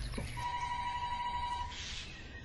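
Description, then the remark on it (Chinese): A telephone rings once, a steady, mid-pitched electronic tone held for just over a second, then cut off, with a soft hiss and low rumble underneath. No one speaks. “但还是一念之差，走去接电话去了。”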